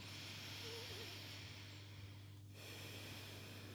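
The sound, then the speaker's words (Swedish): Slow, steady breathing through the left nostril, with the right nostril held closed, deep into the belly, heard as a soft continuous airy hiss with one brief pause between breaths, alone against a low background hum. “Ja, och så andas du bara lugna, jämna andetag genom vänster. Djupt ner i magen.”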